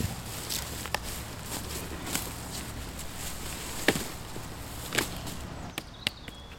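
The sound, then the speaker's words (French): Footsteps crunch over a forest floor while dry sticks snap and crack at irregular moments as someone gathers dead wood of different sizes at sunset, a few sharp breaks standing out above quiet outdoor ambience, with no one speaking. “Je me mets donc à la quête de bois morts de différentes tailles.”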